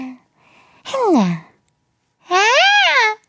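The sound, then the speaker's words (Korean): Two short, high-pitched babbling vocalizations that sound like a baby's voice, loud, the first sliding downward and the second rising then falling, separated by a brief silence. “애기, 애기 목소리 같지 않아요?”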